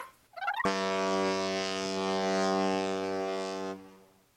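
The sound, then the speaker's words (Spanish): A ship's horn at a pier blasts in one long, loud, steady blare lasting about three seconds before cutting off, preceded by a brief burble of noise. “su voz se perdió con el sonido del barco.”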